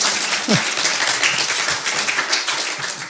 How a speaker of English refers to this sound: Now, if you are, if do you want to clap for Walter? You want to encourage him? Really?